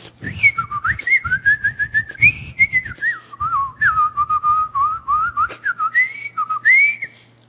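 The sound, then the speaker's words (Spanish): A person whistles a long, warbling melody in imitation of a blackbird's song, with sliding, fluttering phrases that rise and fall continuously for several seconds, fairly loud. “en el río había un mirlo que hacía las más inimaginables, hermosas melodías que te puedas imaginar.”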